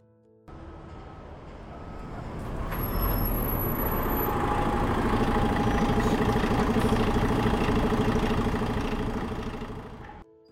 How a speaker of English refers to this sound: The bus has arrived. From its appearance itself, it seems like it hasn't been serviced in a long time. The bus driver, with a cigarette in his mouth, signals her to get in it's almost empty.